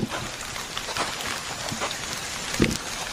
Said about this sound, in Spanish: Y la puta lluvia, güey. La puta lluvia, güey.